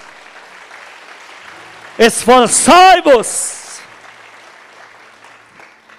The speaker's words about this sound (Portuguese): Aplaude ele, aplaude.